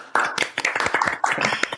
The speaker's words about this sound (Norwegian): Så gi han en liten applaus.